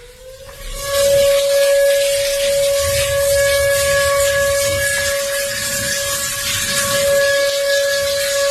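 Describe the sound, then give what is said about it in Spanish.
A flood warning siren in Acuña, Coahuila, blares in one steady, unbroken tone for several seconds, loud, with a rushing hiss of background noise underneath and no voices. “esto yo lo desconocía, hay alarmas de inundación en estas zonas de Coahuila y suenan más o menos así.”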